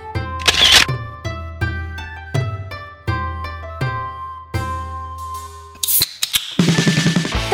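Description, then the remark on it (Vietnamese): A camera shutter clicks about seven times in a steady rhythm as photos of a meal are taken to post on Instagram, each snap crisp and ringing, followed by a brief bright burst and a rush of noisy sound at the end. No voices are heard. “à mà không từ từ ông né né cái tay ra tôi chụp ảnh up ừ. insta cái đã nào”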